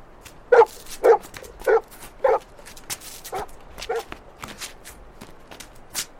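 dog barking

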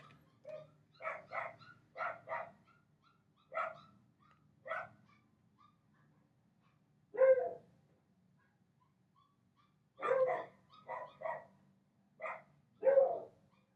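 dogs barking

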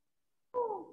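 kittens meowing

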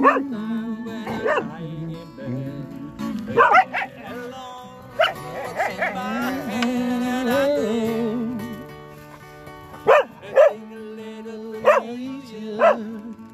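dogs barking

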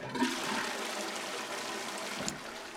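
toilet flush

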